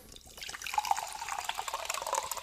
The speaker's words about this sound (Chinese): 咱来听一个气泡水的声音，来喽！